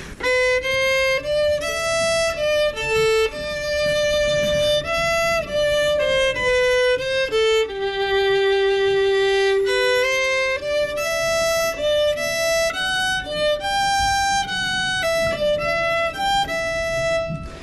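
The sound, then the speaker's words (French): A solo violin plays a short melodic passage alone at a conservatoire, by a violinist of eight years, bowed notes shifting in pitch with a sustained low note in the middle, steady and fairly loud throughout without any talking. “Tu fais du violon depuis combien de temps euh, 8 ans.”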